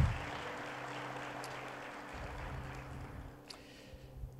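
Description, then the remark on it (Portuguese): An audience at a church service applauds the Lord Jesus for the word of God, a dense, even wash of many hands clapping that holds at a moderate level for several seconds with no voices above it. “Você pode aplaudir ao Senhor Jesus pela palavra de Deus.”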